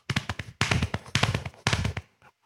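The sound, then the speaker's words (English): Crisp tapping in quick clustered bursts, mimicking a horse's four-beat gallop: a rolling run of taps, a short pause, then the pattern repeats several times. “This is a true gallop”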